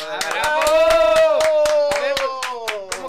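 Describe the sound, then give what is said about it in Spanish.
Studio applause in a steady rhythm, hands clapping together about four times a second, sharp and loud, over a sustained, gliding vocal tone held throughout. “Que, me pasó lo de Código Fama, te pero vamos a repetir el aplauso para que. Ahí el final, se va más orgánico.”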